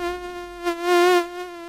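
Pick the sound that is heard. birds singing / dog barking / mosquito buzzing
mosquito buzzing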